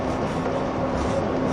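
A 185 series limited express train, Odoriko No. 106, running between Izukyū-Shimoda and Atami, a steady unbroken rumble and rush of motion with a faint sustained hum threaded through it, even in loudness throughout, with no voices.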